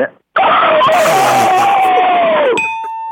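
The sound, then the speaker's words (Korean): A rooster crows once, loud, in a long harsh call that slowly falls in pitch for about two seconds, followed by a bright ringing ding that fades out. “수탉 다시 한번 가게 수탉 예.”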